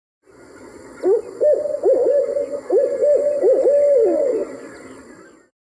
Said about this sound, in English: you can really hear it almost saying who cooks for you, who cooks for you all. And that's a great way to remember the barred owl call.